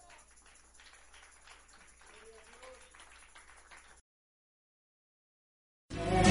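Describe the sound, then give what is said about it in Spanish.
A church audience applauds for Christ in a steady, dense wash of clapping for about four seconds, with faint voices mixed in, before it cuts to silence and then a sudden loud burst. “Le damos un fuerte aplauso a Él.”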